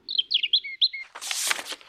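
A robin chirps in a quick run of bright, high trills, then a brief soft rush of fluttering noise takes over. No voices.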